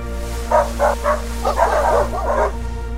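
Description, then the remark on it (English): Sled dogs bark: three quick separate barks, then a busier flurry of overlapping yaps, all over a steady low rumble in the background. “Trains and automobiles even one of those sled dog type situations.”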